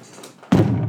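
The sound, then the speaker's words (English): A single heavy, loud thump of a Vans striped shoe, size seven, stomping down on a floor, landing abruptly after a quiet moment and leaving a dull, boomy resonance. “Yeah, that, that was, was, quite a heavy thump.”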